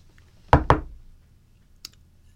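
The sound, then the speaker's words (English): Two quick, solid knocks on a hard surface to begin a knock-knock joke, followed after a pause by one faint, lighter tap, with no voices. “Knock, knock. Who's there?”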